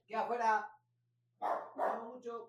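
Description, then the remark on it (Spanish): A small dog barks: one longer yappy burst, a pause, then three quick barks in a row, loud and clear with no talking over them. “te llegó el perrito del Yui.”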